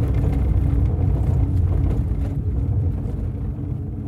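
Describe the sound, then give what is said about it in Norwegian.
A heavy truck engine rumbles steadily with deep low-frequency drone, gradually fading slightly as the truck carrying prisoners drives out of the Grini prison camp, up the driveway and onto a road surrounded by fields; no voices, just the continuous motor noise. “Lastebilen kjører ut fra fangeleiren, oppover innkjøringa og ut på veien som er omringa av jorder.”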